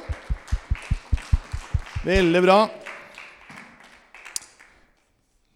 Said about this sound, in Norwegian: Tusen takk så lenge. Vi kan gi en applaus til dem.